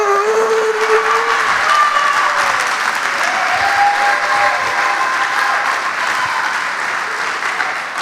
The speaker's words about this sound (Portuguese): forte esse aplauso!